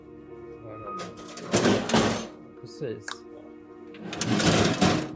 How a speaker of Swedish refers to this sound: Ljudet ni hör kommer från den bankningskassett som sitter utanför ekonomichefens kontor. Det var på den här dörren som man hittade brytmärken.